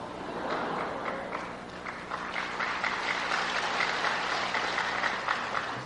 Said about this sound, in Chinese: 这个不要鼓掌，不要闹鬼啊！这个又不是什么好事情，鼓什么掌啊？